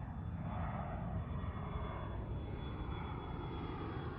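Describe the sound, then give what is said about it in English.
A steady, broad roar of an airplane passing high overhead, a continuous rumbling drone that holds at an even loudness throughout, with no voices. “He remembers the sky, a plane in the higher atmosphere, bearing people going somewhere special.”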